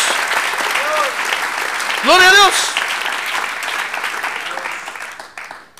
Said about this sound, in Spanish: Ah, un buen aplauso al Señor. Gloria a Dios.